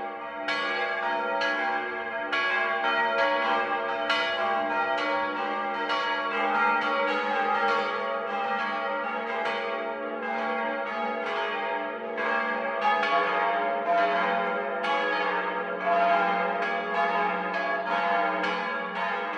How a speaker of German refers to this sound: Das Mittagsläuten kommt heute aus Lindau. Regina Vandal über das Münster Unsere liebe Frau, in dessen Turm sechs bronzene Glocken hängen. Zwei alte von 1772 und zwei neue aus dem letzten Jahr des 20. Jahrhunderts.